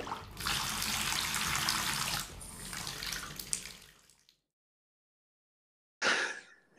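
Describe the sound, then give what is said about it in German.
Cold water gushes steadily from a tap into a filling bathtub for about four seconds, then stops; after a brief silence the running water starts again, loud. “Wenn ich jetzt noch ein Tröpfchen von dem kalten Wasser haben könnte”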